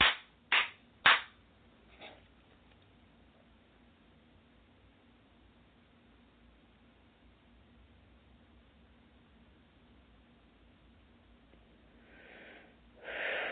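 A few sharp hand claps, done as a clearing exercise: three quick, loud ones and then a softer fourth. A long stretch of near-silence follows, ending with soft breathy exhalations. No one speaks.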